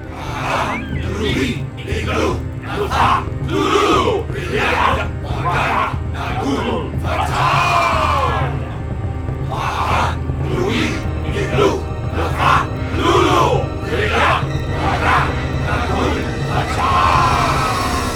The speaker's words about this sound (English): And then we heard the chant. That very same chant, Professor Webb.